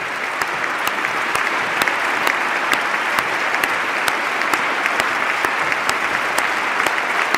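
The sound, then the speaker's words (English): A slow, steady clap lands right on the microphone, with sharp, loud hits about twice a second ringing out over a continuous wash of crowd applause. “It's a slow clap too.”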